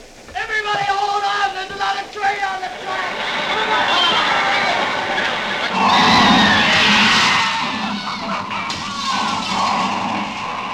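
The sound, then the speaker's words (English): A loud car crash: high, wavering tire squeals build for several seconds before a heavy, noisy impact and a sustained roar of crunching wreckage. The car ends up on its side in flames. “A car lay on its side in flames.”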